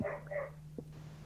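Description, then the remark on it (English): A dog barks twice in quick succession, fairly quiet, over a steady low electrical hum with no talking. “Uh, there's a dog barking.”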